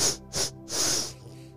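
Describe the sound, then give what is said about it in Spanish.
Someone takes a deep breath in through the nose as a breathing exercise to activate the mind: two short, airy sniffs followed by a longer, steady hissing inhale that fades out, with no talking. “Entonces, estaba yo escuchando a un psicólogo donde dice que la mejor respiración para que tu, mente se active es darte respiraciones profundas.”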